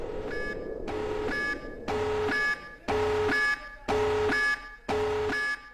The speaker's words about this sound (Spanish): Ahora va a sonar una alarma y cuando deje sonar